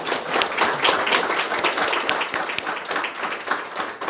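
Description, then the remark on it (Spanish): A crowd breaks into sustained applause for the day's honoree, many hands clapping in a dense, steady wash of sharp claps at an even loudness for several seconds, with no talking over it. “Creo que se merece más que un aplauso, ¿verdad?”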